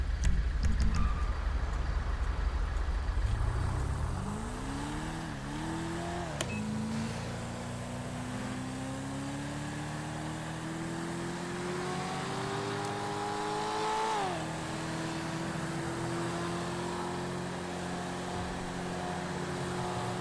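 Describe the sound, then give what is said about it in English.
A car engine revs up and accelerates with rising pitch, shifts gear, and keeps pulling away steadily under a constant hum of road noise; no one speaks. “This car's getting ready to move.”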